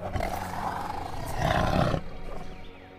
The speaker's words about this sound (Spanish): Mientras tanto, el jaguarete, rugiendo furioso, busca a su heridor para atacarlo.